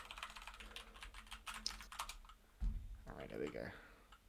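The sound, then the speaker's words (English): Rapid keyboard typing clatters in quick, uneven bursts of key clicks as someone types messages to people on WhatsApp, followed by a low thump and a voice speaking briefly near the end. “Yeah, because I'm messaging people on WhatsApp, so.”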